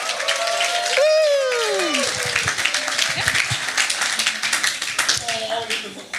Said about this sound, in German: Gib dir einen Applaus.